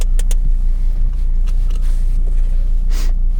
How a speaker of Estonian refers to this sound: praegu pargingi auto siia Dacia-de vahelisele teele